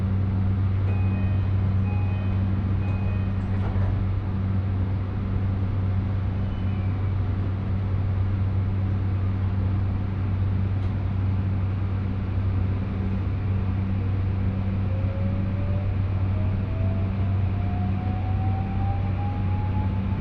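A train on the Kagoshima Main Line in Japan, travelling from Omuta to Kami-Kumamoto, runs steadily with a deep, constant low hum and rumble, with a rising whine of the motor accelerating partway through; no one speaks.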